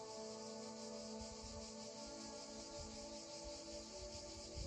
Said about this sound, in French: La nature tout autour de vous, le chant des cigales et des oiseaux dans vos oreilles.